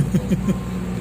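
A car passes along the roadside, a steady low engine rumble and road noise filling the brief moment, with faint murmuring voices briefly mixed in.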